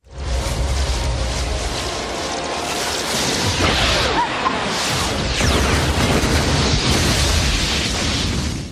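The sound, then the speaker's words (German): A loud, sustained cinematic explosion as a skyscraper in Manhattan is destroyed by a single shot from a huge saucer-shaped ship, deep rumbling and crackling debris swelling and churning continuously for several seconds. “ja, der Wolkenkratzer und äh, ganz Manhattan wird hm. zerstört mit diesem einen Schuss.”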